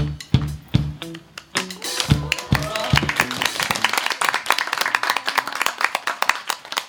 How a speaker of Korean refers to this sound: 네, 이 킹어를 열심히 읽어주신 여러분께 다시 한번 큰 박수를 드립니다. 감사합니다.